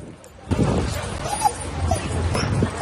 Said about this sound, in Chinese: 光天化日之下，在市中心遛狗，马路对面突然出现一群羊，狗狗兴奋的鬼吼鬼叫，遛狗人也开怀大笑。